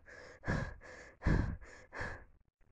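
Heavy, rhythmic breathing, about six rough, airy breaths in and out in steady succession, a few loud and forceful, with no talking; a woman breathing out through her mouth, her breath steaming as her chest rises and falls rhythmically.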